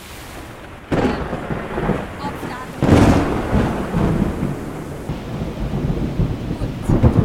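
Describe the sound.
A thunderstorm: deep rolls of thunder rumble in near the start and again a couple of seconds later, over a steady hiss of rain, with a brief spoken word barely audible.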